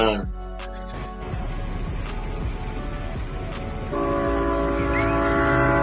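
A train rumbles past with steady low mechanical noise, its horn sounding in sustained harmonic blasts at the start and again, louder, toward the end.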